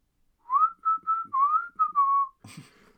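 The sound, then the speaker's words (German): A person whistles a short tune, about six clear notes gliding up and down, ending with a brief breathy rustle. “Pfeift ja.”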